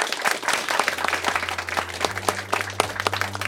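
An audience claps steadily, a dense wash of many overlapping hand claps at moderate loudness, with a low sustained hum running underneath throughout.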